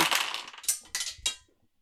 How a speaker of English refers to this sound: Roll dice. Dice go.